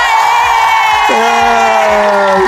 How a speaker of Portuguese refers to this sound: Uma salva de palmas